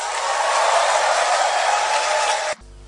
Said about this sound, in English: If there are some more tapers in the room and there are young people with energy, I want to hear a clap and a shout.